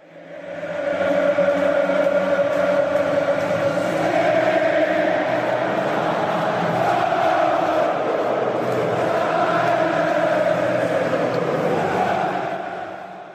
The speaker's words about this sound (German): Das erkenne sogar ich. Das waren, das waren offensichtlich Jubelgesänge, klang es schon fast so ein bisschen äh, kirchlich für mich.